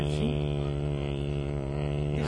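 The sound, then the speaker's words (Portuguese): A voice on a radio show imitates an airplane flying far away in the air, holding a steady, buzzing drone for a couple of seconds with only slight wavering in pitch, fairly loud. “Não, esse é o barulho do avião do ….”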